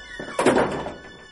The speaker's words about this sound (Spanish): entró de nuevo en el armario y cerró la puerta tras él.